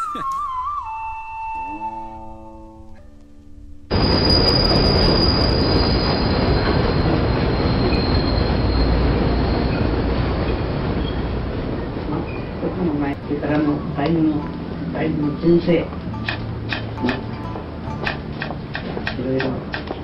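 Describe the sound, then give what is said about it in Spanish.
A short descending chime gives way to a loud subway train rumbling along the rails at a subway exit, steady roaring with high metallic wheel squeals and clattering toward the end. “escuchame una cosa, es la salida del subte acá. El subte.”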